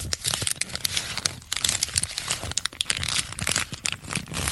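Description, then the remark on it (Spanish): A piece of paper being folded and crumpled in the hands, a continuous stream of dense, sharp crackles and rustles with irregular bursts, fairly steady in loudness throughout, with no voices. “Era un, papel doblándose, ¿no? Arrugado.”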